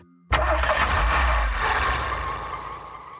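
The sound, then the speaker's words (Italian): After a brief quiet moment, a car engine bursts to life with a loud, deep rumble that holds steady, then slowly fades as the driver shifts into gear and drives the car off quickly, with no voices. “Quando vidi che il sorriso della volpe si allargava via via che la distanza tra me e lei si accorciava, innestai la marcia e feci partire veloce la macchina.”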